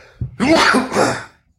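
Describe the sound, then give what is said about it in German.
A single loud sneeze: a brief sharp intake followed by a voiced, breathy burst lasting about a second, then quiet. “Entschuldigung, ich muss gerade niesen.”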